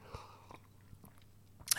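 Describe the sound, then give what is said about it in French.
Quiet mouth sounds of someone sipping a hot coltsfoot herbal infusion: a few soft wet clicks and small swallows, then a brief airy slurp at the end, with no talking. “Et c'est sur ces paroles que je vous laisse en sirotant mon infusion de tussilage”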